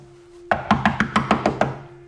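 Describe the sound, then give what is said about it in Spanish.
A quick, even run of about eight knocks on a door, close and crisp, after a brief quiet moment, then the room falls quiet again. “Volvió a tocar la puerta”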